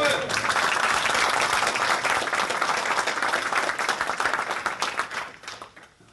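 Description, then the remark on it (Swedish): A crowd applauds steadily with dense, overlapping claps, sustained and fairly loud before tapering off near the end, with faint voices mixed in. “Inte ens ambassaden applåderade. Det verkar... Jodå! Härligt.”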